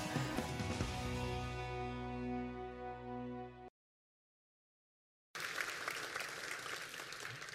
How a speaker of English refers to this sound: Well, I hope you're applauding that. I want to welcome the folks who are watching via video at Pike Road. I hope you're applauding there too.